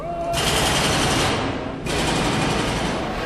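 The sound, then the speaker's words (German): Miners work a pneumatic rock drill, hammering loudly through stone in a tunnel of an iron ore mine. A harsh, rapid, continuous rattle cuts out briefly before starting up again at full force. “Es ist sauwarm, schummriges Licht, überall so rötlicher Staub vom Eisenerz, alles voll mit schwerem Gerät und die Bergleute bohren sich hier seit Jahren durch das Gestein.”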